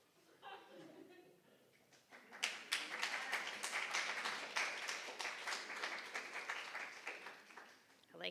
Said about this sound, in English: how you guys clap a lot.